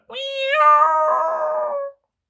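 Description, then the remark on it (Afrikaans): A dog named Wagter lets out one long, drawn-out bark that stretches into a steady, howl-like wail for about two seconds, loud, with no other sounds around it. “Wagter blaf.”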